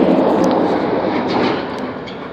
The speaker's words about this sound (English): suddenly we got a lot of traffic out here.